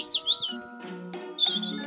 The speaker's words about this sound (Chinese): 小鸟好像认识老园丁一样，一点也不害怕它，啾啾啾的，好像在跟老园丁说话。甚至绕着老园丁开始找虫子和种子吃。